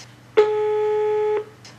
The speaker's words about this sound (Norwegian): Anne Marie ringer til Nav.